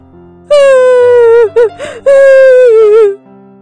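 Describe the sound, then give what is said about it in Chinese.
A voice imitates a little mouse crying: two long, high-pitched, wavering wails broken by a couple of quick gasping sobs, loud and on its own. “小老鼠话还没说完，就先哭起来了。”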